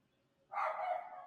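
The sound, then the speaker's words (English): A neighbor's dog barks once, a single drawn-out, fairly muffled bark that starts abruptly and trails off, with no talking around it. “oh yeah, sorry about that dog. Again, that's not me, but neighbors”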